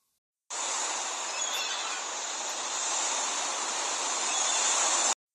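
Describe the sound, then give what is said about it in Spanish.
A stormy sea roars in a loud, continuous rush of churning water, tossing a ship about, steady for about five seconds with no distinct breaks between waves. No one speaks. “El mar comenzó a rugir con fuerza y el barco empezó a dar tumbos, hasta que finalmente logró partirlo y mandarlo al fondo del mar.”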